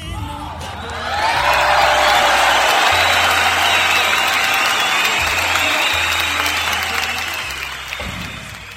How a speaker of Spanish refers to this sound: a quien le pidió un fuerte aplauso.